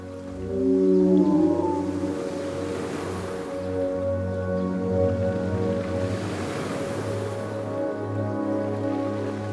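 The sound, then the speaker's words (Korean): Low, drawn-out whale calls with rising and falling tones sound steadily over a constant wash of ocean surf, with no talking throughout. “중요한 선택을 앞두고 걱정이 많다면 저 먼 바다에서 들었던 고래의 노랫소리를 떠올려 보세요.”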